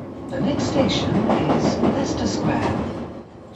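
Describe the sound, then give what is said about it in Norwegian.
Steady rumbling T-bane subway train ambience with a low mechanical roar and faint rattling, indistinct voices murmuring underneath, holding at an even level before easing off slightly at the end. “Et nys på T-banen kan være nok.”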